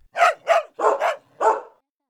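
A dog barks five times in quick succession, loud, in short uneven bursts with a brief pause before the last bark. No one speaks.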